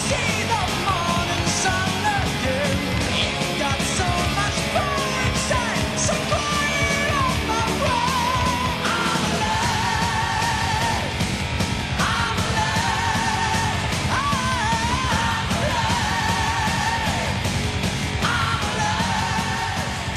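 A loud, dense power metal track plays throughout, with driving drums, distorted guitars and high soaring vocals that sound like sustained yells over the full band.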